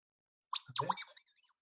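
The droid R2-D2, in the Latin American Spanish dub, beeps and whistles in a quick burst of warbling, sweeping electronic chirps lasting under a second, then trails off into a few faint blips. No one speaks.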